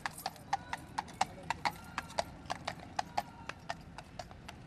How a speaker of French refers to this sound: Alors j'en profite d'une petite pause avant que le prochain régiment euh, de soldats à cheval passe devant moi